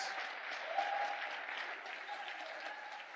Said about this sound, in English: Today you're going to clap and appreciate what God did before your conference.